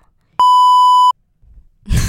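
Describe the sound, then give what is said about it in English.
A single loud electronic beep from a 16-gigabyte phone signalling its storage is full and interrupting a recording, a steady pure tone lasting under a second, cuts in sharply and stops, followed by quiet rustling and then a burst of laughter-like vocal noise. “Sorry, guys, I ran out of space on my goddamn phone.”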